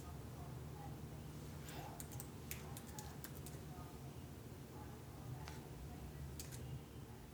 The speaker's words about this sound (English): The faint keyboard taps that close the recording are the sounds of a woman innocently closing and saving that recording.